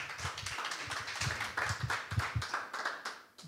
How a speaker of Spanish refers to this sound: Si así lo cree, mi hermano, denle un fuerte aplauso a nuestro Señor y vamos a orar.